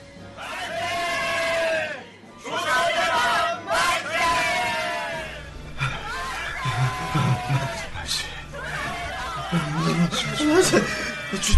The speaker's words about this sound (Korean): 저 먼 곳 어디에선가 만세 소리가 들렸다.